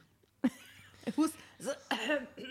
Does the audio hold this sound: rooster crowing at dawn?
no